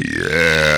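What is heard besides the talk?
burp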